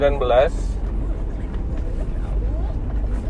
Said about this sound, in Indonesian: biasa nih gue lagi di mobil mau jalan pagi-pagi sih sekarang nih